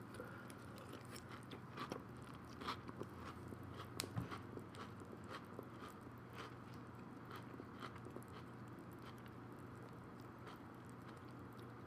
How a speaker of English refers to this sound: Welcome to ASMR Garbage Cast Conversation Chewing. The Chewing Edition. This is some great breakfast soup.